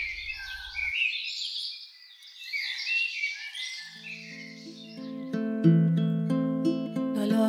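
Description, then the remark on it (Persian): On a warm, sunny day, a flock of sparrows in a large mulberry tree chatters noisily, a dense, continuous jumble of bright chirps throughout; about halfway through, soft sustained music tones rise beneath the birdsong. “روی درخت توت بزرگ دوباره گنجشکا قوقا کرده بودند.”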